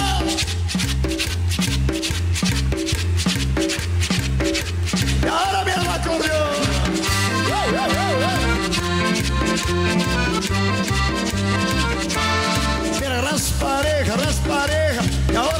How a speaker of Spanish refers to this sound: esto que estamos escuchando es … del grupo …